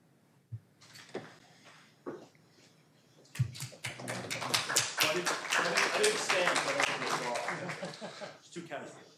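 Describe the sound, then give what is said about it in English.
A few scattered claps, then an audience breaks into dense, sustained applause that holds steady until the end, with some voices mixed in. “I stood for your applause like I had earned it.”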